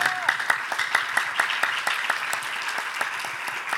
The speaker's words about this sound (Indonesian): Berikan tepuk tangan yang meriah bagi Yesus Tuhan kita.